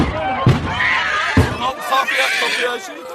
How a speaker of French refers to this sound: Sous la pression de la foule, les gardes frontières ouvrent et ferment les portes avant de disperser les fidèles sans ménagement.